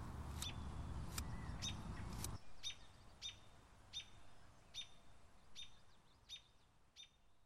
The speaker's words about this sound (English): So I'm going to keep hand cutting and listening to the bird song.